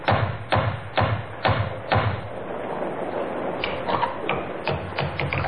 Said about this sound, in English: Henry helped Elizabeth out of the worst of the rain, handed her a fine little terrier named Patsy, which Elizabeth had insisted on bringing with her, and then knocked on the door of Webley's Inn.